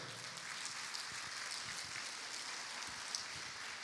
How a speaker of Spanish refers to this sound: Si usted lo cree, le da palmas fuerte al rey.